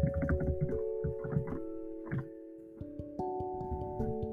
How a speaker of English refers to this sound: Oh, it's a clock. Okay, this thing isn't called a clock. It's called a. it's called something different.